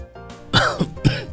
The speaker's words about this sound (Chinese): 啊，我最近有些咳嗽，觉得有些气喘。还有点头疼。 青青也说着，还咳嗽了几声。他故意泡了一个小时的冷水澡，把自己冻感冒了才过来的。